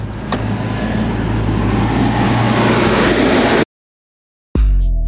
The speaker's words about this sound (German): auf dem Gelände des Seehafens Brake. Riesige Hallen, Kräne, Bagger, Güterzüge. An der Anmeldung sagt man uns, wir sollen gut aufpassen mit unserem Auto, die Züge würden nicht bremsen.